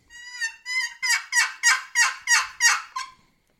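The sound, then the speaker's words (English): A run of about eight turkey yelps made by a hunter on a turkey call to check on a turkey, fairly loud, in a steady rhythm; the first two are softer, then they build to sharper, raspier notes, with no talking. “I'll let out four or five yelps, just.”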